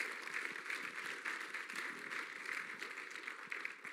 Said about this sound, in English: Thank you. Let's give yourselves a round of applause.